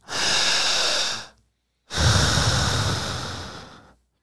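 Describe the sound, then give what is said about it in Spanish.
Two long, deep breaths taken as a breathing exercise, a steady airy inhale followed after a brief pause by a longer, slowly fading exhale, with no talking. “A ver, empiece a respirar.”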